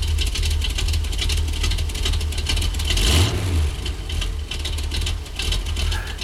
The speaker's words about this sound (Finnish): Ai että, oli mukava kuunnella tuota v röpötystä vähän, vähäksi aikaa taas, kun on tässä puhuttu noista sähköautoista ja hybrideistä ja kaikesta muusta, niin aina sitä tulee hyvä mieli, eikös tule?